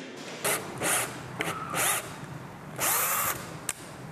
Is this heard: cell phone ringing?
no